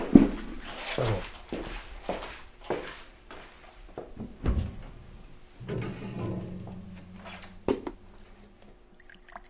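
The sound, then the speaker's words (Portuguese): A mini fridge door in a studio opens and shuts amid a run of clunks and rattles as someone gets a glass of water, followed by a short steady hum and a final soft knock, with no talking. “É rapidinho, tem um, um frigobar aqui no estúdio, peraí.”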